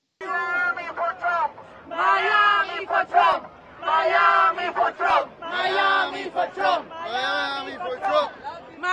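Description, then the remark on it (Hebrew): A crowd of several hundred Donald Trump supporters outside the courthouse in Miami shouting and chanting in loud, rhythmic bursts, many voices rising together in waves with brief dips between, sustained throughout. “בואו נשמע אולי כמה קולות מחוץ לבית המשפט קודם כל.”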